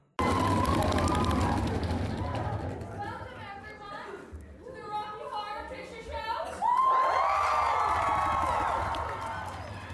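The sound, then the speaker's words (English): A large, excited crowd cheers and chatters loudly throughout while waiting for a performance to begin, with overlapping shouts and whoops rising in a swell near the end, dense. “the crowds were definitely excited for the performance to begin.”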